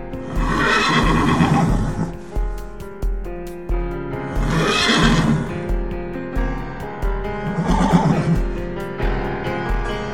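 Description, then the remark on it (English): Horses whinny loudly three times in long, shrill neighs, while a steady clip-clop of hooves thuds underneath throughout, fairly loud. “But, to everyone's surprise, the two horses that had been locked in their stalls were gone.”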